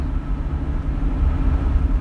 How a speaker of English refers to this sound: so I sneakily turned on my iPhone while we were driving through a snowstorm last winter. Sorry about the road noise, and he said I could share this with you.